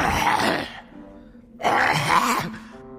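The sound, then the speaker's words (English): A voice imitates a lion coughing as it bends over in the middle of a room, trying to cough out Wukong: two loud, raspy, growling hacks separated by a short pause, each trailing into a low groan, with no other talk. “He bent over and coughed.”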